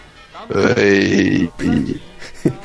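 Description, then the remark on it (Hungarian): A loud, garbled vocal burst that sounds like a burp, lasting about a second, followed by two shorter croaky, distorted fragments: a woman's voice breaking up in an audio glitch on a Skype call. “Kicsit beszagatott ebbe a hölgybe ez a, a Skype, ez egy kicsit olyan, mintha böfögés lett volna”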